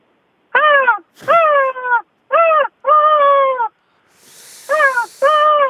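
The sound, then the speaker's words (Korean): A person's voice imitates seagulls on a beach begging for shrimp crackers: six loud, nasal squawking calls in a fairly steady run, with a short gap and a soft hiss before the final two. “그러니까 우리가 딱 예, 예, 들었을 때 진짜 갈매기 소리가 딱 바닷가에 온 느낌이 들어야 돼요.”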